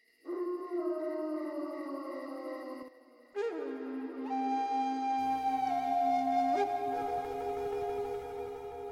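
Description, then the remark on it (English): Long, drawn-out howls of a pet wolf raised from a cub, with sliding pitch, ring out loud, breaking briefly before rising again as an instrumental music bed fades in beneath them. “It is his pet's howling that can be heard in the bumper music.”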